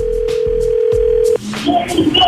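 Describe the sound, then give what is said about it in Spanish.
A telephone ringback tone hums as one steady, mid-pitched note for just over a second, then cuts off abruptly, giving way to faint rustling and indistinct voice-like sounds on the line, as a call is placed from the morning show of a radio host. “Ok, ya, ya, está sonando.”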